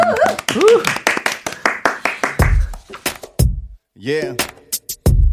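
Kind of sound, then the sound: crowd, audience clapping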